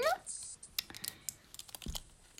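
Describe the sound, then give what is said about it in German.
Crisp crinkling of stiff plastic blister-style packaging, like tablet packaging, holding small capsules of liquid; a quick run of irregular clicks and crackles as it is handled, fairly quiet with no one speaking. “es hört sich so an, wenn man so raschelt.”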